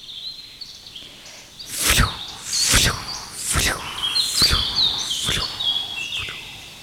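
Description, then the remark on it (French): Meadow ambience with insects chirping steadily at a high pitch, while five regular, loud swishing rustles pass by, like steps brushing through tall grass as someone crosses the meadow. “oh, une prairie. On dirait la mer.”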